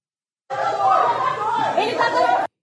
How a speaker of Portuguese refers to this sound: gritaçada, aquela gritaçada de, de, de briga. Volta! Desce todo mundo! Rápido! Desce todo mundo rápido. Desce! Desce todo mundo pro espaço aberto! Todo mundo pro espaço aberto. Uma voz feminina tá guiando essa, essa situação.